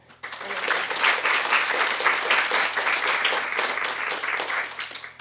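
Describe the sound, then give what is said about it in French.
An audience breaks into steady, sustained applause for three invited guests, many hands clapping densely together at an even loudness for several seconds with no voices rising above it. “euh, commençons donc par applaudir chaleureusement mes trois invités”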